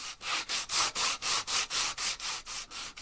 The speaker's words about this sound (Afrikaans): Eers skuur hulle die rak af.